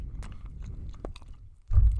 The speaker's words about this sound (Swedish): nu har vi både druckit och vi, käkat. Vi sitter och tuggar liksom och bara mm, lyssna på det här.